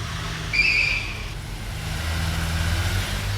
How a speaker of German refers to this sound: Kurze Zeit später hörten die drei Detektive die Haustür, dann einen Automotor. Palmer Dixon fuhr in seinem grünen Ford davon.